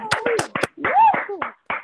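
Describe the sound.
Several people on a video call unmute their microphones and clap unevenly while voices cheer and call out over them. The sharp claps and whoops sound thin and compressed through the small mics.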